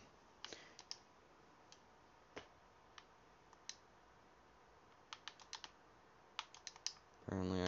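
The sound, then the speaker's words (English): Crisp keyboard keystrokes and clicks come in scattered bursts and short clusters over a quiet background. Near the end a louder, denser rush of noise cuts in. “can't use that keyboard and mouse on an Xbox.”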